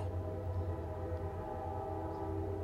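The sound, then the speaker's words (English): A train horn blares in one long, steady, chord-like tone over a low rumbling drone, holding at a constant loudness for the whole stretch with no voices. “Don't you hear the train blowing?”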